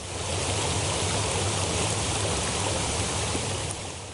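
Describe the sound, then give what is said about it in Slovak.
Steady, loud rushing floodwater roars continuously with a dense, unbroken churn and no voices: the Levodský stream and the Hornád river, filled by incessant rain, in Markušovce in the Spiš region of Slovakia. “Neutíchajúci dážď naplnil korito Levodského potoka a Hornádu a už o polnoci bola ulica pod horou, pol metra pod vodou.”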